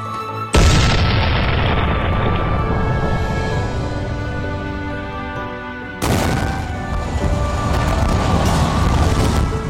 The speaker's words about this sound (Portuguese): Então, os ingleses montaram grandes catapultas chamadas de trabucos e canhões e começaram a bombardear a outra parte de Orleans.